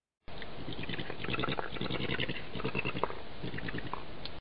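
A badger mother and her cubs calling to each other: a steady stream of soft, rapid chittering and squeaky grunts, busy and continuous for about four seconds, with no human voices.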